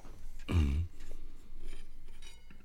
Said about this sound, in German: Schleifst du gerade dein Schwert für die Tour oder was machst du? Da? Äh, nee, ich habe gerade eine Zigarette ausgemacht und bin ähm, mit meiner Uhr an meinen ähm, Aluminium-Aschenbecher gekommen.